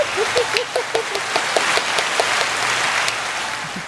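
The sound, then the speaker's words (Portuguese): A crowd applauds the show's guests steadily, a dense wash of many hands clapping at an even loudness, with a few brief whoops or voices rising above it early on. “Então, a partir de agora, uma grande salva de palmas para os nossos convidados de hoje”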